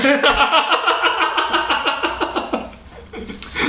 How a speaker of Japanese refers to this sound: 今のは紙が破れた音です